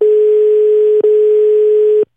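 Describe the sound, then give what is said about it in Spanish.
A steady, mid-pitched telephone ringing tone of a call placed to someone's home plays loud and clear on its own in two one-second pulses separated by a tiny click-like break, then stops abruptly. “Intentamos por WhatsApp, intentamos por Facebook, lo llamamos a la casa hasta que él nos devolvió la llamada de un minutero.”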